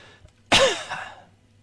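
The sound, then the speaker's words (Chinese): A single loud, harsh cough bursts out suddenly, its raspy, throaty tail trailing off over about half a second, with near silence before and after and no talking. “就只要这个是无论是什么节目，就我搁这做，我搁这一做，啊，我什么也不干，我就咳嗽。”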